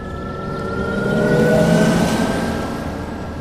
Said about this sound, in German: hat die Europäische Union beschlossen, dass in Zukunft, also ab Mitte kommenden Jahres, alle E-Autos beim Langsamfahren so einen speziellen künstlichen Sound haben müssen. Ein paar Autos haben den auch jetzt schon und das klingt zum Beispiel dann so.